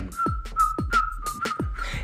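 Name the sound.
person whistling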